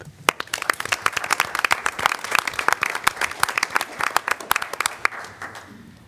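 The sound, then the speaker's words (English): An audience claps together in honor of Juneteenth, with a dense, crackling patter of many hands that holds fairly steady for several seconds before thinning out at the end. No one speaks. “So we'll just give a hand clap for Juneteenth.”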